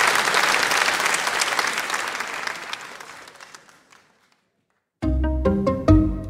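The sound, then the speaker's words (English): A sustained round of audience applause thanking the authors, dense, gradually fading out over about four seconds before a short silence and then a bright musical passage begins. “so please join me in thanking them again.”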